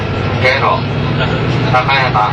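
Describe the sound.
Steady low diesel engine drone inside a moving KiHa 85 series diesel railcar on the Hida No. 1 limited express from Nagoya toward Hida-Kanayama, Japan, a continuous rumbling hum throughout, with a voice speaking over it in the cabin.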